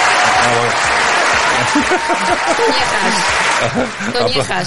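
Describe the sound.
Sustained applause from a crowd, a dense, steady clatter of clapping that stays loud throughout, with voices and a bit of laughter mixed in underneath.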